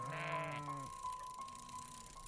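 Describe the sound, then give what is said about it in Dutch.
A sheep lets out one drawn-out, wavering bleat lasting close to a second, followed by a fainter second bleat, over a quiet outdoor background with a steady faint tone. “Op een dag dat ook schapen tot hier kwamen.”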